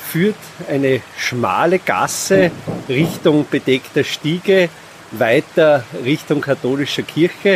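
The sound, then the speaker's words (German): A steady, soft rush of the Mühlbach, a now quite tame mill stream in Hallstatt, Austria, hisses in the background throughout, running continuously beneath a man's clear speech without pausing. “Ich glaube, man hört auch im Hintergrund das Rauschen des nun eigentlich sehr zahmen Mühlbachs,”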